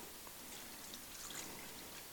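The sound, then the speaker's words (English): Water is poured into a bowl in a soft, steady trickle that runs continuously for a couple of seconds, fairly quiet, with no voices. “if I take this water, the second bowl is just to catch stuff. And I put water in this, right?”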